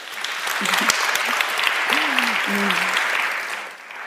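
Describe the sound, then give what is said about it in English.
A crowd applauds steadily for about four seconds for the women in the audience standing up who know how to code, in 2017, a dense wash of clapping that fades slightly at the end, with a few faint voices and cheers mixed underneath. “So, Round of applause for all of you.”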